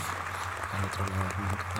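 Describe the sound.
Steady, dense clapping at the opening of the Spanish radio programme Está Pasando Radio Show fills the whole short stretch, a continuous crackling wash with a low hum of voices or crowd murmur underneath.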